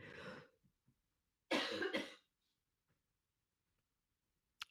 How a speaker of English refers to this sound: Ruh-roh, she won't stop coughing. Let's hope it's just the sinus infection. Kicking back in.